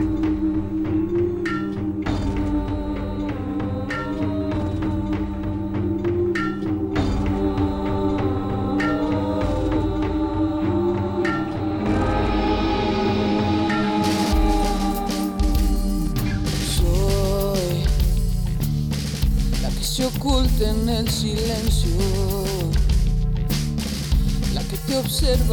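A newly released band song, premiered last Friday, plays loudly and steadily, opening with sustained melodic instruments before the full band crashes in about halfway through with driving drums and a denser, brighter sound.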